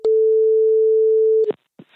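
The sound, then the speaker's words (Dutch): A telephone ringing tone plays while a call is placed, one steady, loud electronic hum lasting about a second and a half, cut off by a click, followed by a brief snippet of a voice. “Ik heb haar telefoonnummer en ik ga haar nu bellen.”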